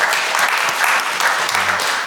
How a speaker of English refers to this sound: Um, last year's accounts we submitted uh, was 111,000 uh, pounds, so it's been a massive massive growth, which just shows, yeah, round of applause, massive growth just shows.